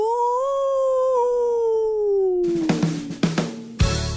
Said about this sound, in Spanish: El hombre lobo. ¡Aú!